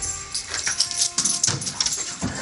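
A dog whimpers in a few thin, high whines, broken by short snuffling bursts and faint rustling, with no one speaking.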